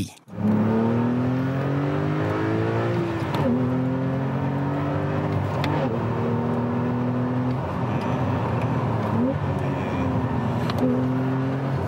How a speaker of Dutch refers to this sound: Nou, kenner hoort natuurlijk al 911. Of nou ja, in ieder geval een boxer 16, maar het is inderdaad een 911.